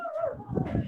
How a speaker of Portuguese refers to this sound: Peraí, gente, tem um cachorro latindo puta merda.